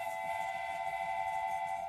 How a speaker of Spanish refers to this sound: Bienvenidos a este tren que está a punto de salir de la estación.